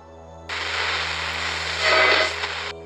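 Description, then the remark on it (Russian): A steady, monotonous low electrical hum from instruments runs throughout, and a loud burst of harsh radio static cuts in abruptly, hisses for about two seconds, then stops sharply, leaving the hum alone. “Что-то помимо помех и монотонного гудения приборов доносилось откуда-то издали, звук, похожий на медленный топот.”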